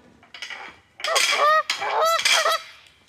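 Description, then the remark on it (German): Several geese honk and cackle loudly, a burst of harsh, overlapping nasal calls that swells after a quieter start and keeps going in a noisy, agitated chorus. “Die Gänsen verschnatterten ihn laut.”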